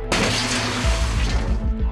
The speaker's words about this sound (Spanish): Cojo una de las sillas más cercanas y con todas mis fuerzas golpeo la puerta de cristal.